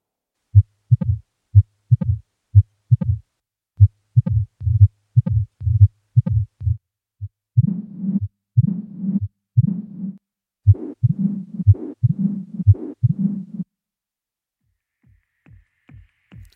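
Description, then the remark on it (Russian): Low, rumbling recording of a mitral stenosis heart murmur: a steady series of dull thuds, then a stretch where each beat blurs into a longer, low-frequency murmuring rumble, heard through a stethoscope with the patient lying on the left side. “Шум при митральном стенозе настолько низкочастотный, что выслушивается только стетоскопом и при положении обследуемого на левом боку.”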